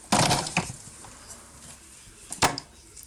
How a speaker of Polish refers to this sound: i teraz, żeby tą kapsuł, kapsułkę wyciągnąć, to żeby wpadła do pojemnika, to ją dźwignię odchylamy do tyłu.